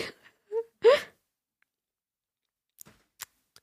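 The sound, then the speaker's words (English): A pet named Bella snoring: a few breathy, snuffling snorts with a nasal whistle, then quiet except for a couple of faint soft ticks. “Bella's snoring.”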